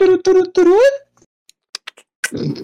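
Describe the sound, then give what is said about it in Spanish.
A voice imitates beetle sounds that resemble a cricket: three quick, loud voiced chirps, the last sliding upward, followed by a few sharp mouth clicks and a short breathy burst. “Suena como Ese es un grillo. Comienzo a hacer esos sonidos.”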